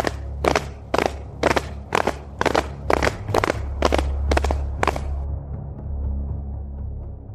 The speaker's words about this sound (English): and you hear like boots stomping, like a big like squadron of boots stomping.